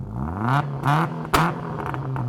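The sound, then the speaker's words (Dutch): A race car engine revs hard, its pitch climbing in quick surges with brief gear-shift drops between them, loud, ending in a sustained high whine as it accelerates. “Dat een raceauto goed op de weg gedrukt wordt, is heel belangrijk.”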